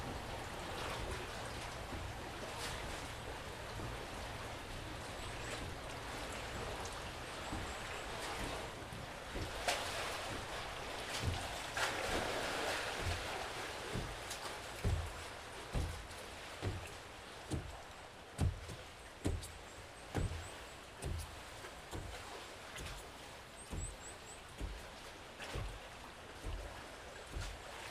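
Water laps and slaps against the wooden shrine buildings of Itsukushima Shrine in a steady series of splashes, growing into distinct rhythmic knocks of waves over a constant wash of surf, with no voices.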